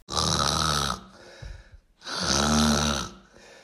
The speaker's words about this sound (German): Schnarchen, wer kennt das nicht? Jeder dritte Mensch schnarcht. Das sind mehr als zwei Milliarden Menschen weltweit. Schnarchen kann echt nerven, besonders für PartnerInnen.